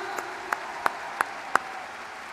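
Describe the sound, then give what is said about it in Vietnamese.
Audience applause for Amway leaders, with a steady, rhythmic beat of about five sharp claps in unison over a soft wash of crowd noise. “Các anh chị có thể dành những thằng pháo tay lớn hơn với các anh chị lãnh đạo vừa rồi không ạ?”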